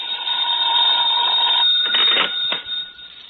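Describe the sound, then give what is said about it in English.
A telephone rings with a steady, shrill electric bell tone, then cuts off into a couple of clattering handset clicks, fairly loud with no voices. “I I wouldn't hear from him for days, and then then all of, all of a sudden he'd call up at the craziest times.”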